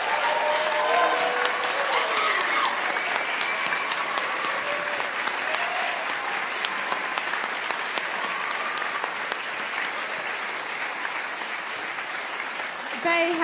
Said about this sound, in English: I think you've been waiting all night to give these guys a really amazing big round of applause. Let's do it now.